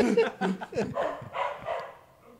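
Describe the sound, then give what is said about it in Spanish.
A dog barks in a quick run of short, sharp yaps, followed by a rougher, noisier stretch of barking that fades out toward the end. “Ya se estaba saludando el perro.”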